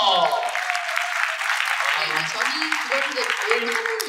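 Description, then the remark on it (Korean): A crowd claps steadily for about four seconds to congratulate a woman who bought her first home, a dense, fairly loud patter of many hands, with a few excited voices calling out over it toward the end. “첫그 생애 첫 주택 장만을 하셨고 아, 박수 주세요.”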